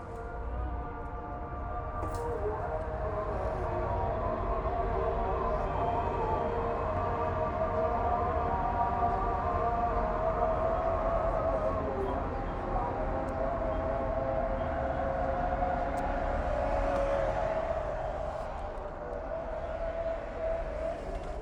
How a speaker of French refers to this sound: Bon, I'm sorry guys, c'est euh, l'appel à la prière, donc euh, je ne peux pas parler pendant l'appel à la prière. Donc on se retrouve après l'appel à la prière.